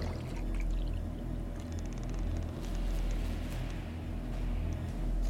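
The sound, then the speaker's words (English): Water pours steadily from a pitcher into a glass in a kitchen, a continuous splashing gurgle that lasts several seconds over a low background rumble, with no one speaking. “I grabbed the pitcher of water and poured a glass.”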